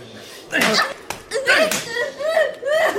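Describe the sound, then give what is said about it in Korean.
A single sharp, loud slap to the face cracks out near the middle, abrupt, surrounded by strained, wavering vocal sounds before and after. “잘못 맞으면 고막 나간다.”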